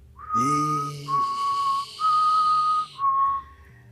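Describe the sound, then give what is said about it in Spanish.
A tall, dark figure whistles a short, slow tune while walking down a street leading a boy by the hand: four long, steady notes that step gently in pitch, with brief pauses between them and no talking. “El silbo.”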